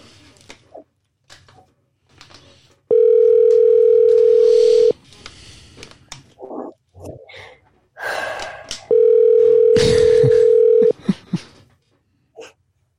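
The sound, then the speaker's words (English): A telephone dial tone after a dropped phone call sounds twice, each a loud, steady hum lasting about two seconds, with soft clicks, rustles and breathy noises between and around the two tones. “Looks like the we lost the phone connection.”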